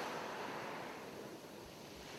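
Ocean waves wash steadily onto the shore of Kitsilano, a city beach, a continuous broad hiss of surf with a faint low rumble and no distinct breaks or voices.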